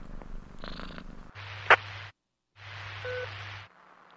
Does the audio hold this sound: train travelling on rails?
no